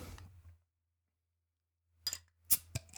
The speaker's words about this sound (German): Und jetzt öffne ich mein Bösfinsterbier